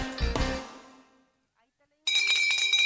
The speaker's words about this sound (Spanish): En marzo suena la campana.